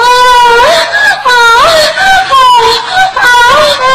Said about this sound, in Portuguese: Meus ouvintes, me desculpe pelo editor ter colocado o gemidão do WhatsApp